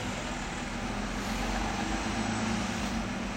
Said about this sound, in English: Okay, wait, there's a bus.